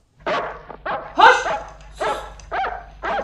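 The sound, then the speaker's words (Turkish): A dog barks about six times in quick, slightly uneven succession, each bark sharp and fairly loud, with a low steady hum running underneath and no voices. “köpek hep böyle.”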